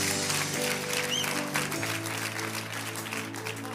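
An audience claps in a dense, steady wash of applause, mixed with sustained organ chords and a brief whistle near the start.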